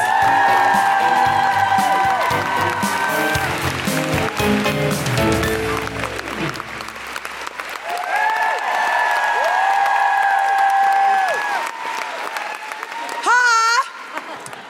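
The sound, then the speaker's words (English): Loud, sustained applause and cheering from a large audience at a Guilty Feminist live show in International Women's Day week, welcoming comedian London Hughes, with whoops rising over upbeat walk-on music that plays throughout, the crowd noise swelling again near the end. “Put your hands together and make extraordinary, welcoming International Women's Day week noises for the wonderful London Hughes!”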